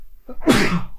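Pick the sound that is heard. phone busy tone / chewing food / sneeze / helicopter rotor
sneeze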